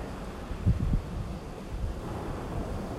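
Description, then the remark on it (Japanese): Steady outdoor wash of wind and surf at the shore, with a few gusty low rumbles buffeting the microphone early on, then a continuous hissing roar throughout; no voices. “えー、じゃあ何の話しようかなあんま考えてんねんけどまあ海いやせっかく海来てんねんから海の話をしようかな”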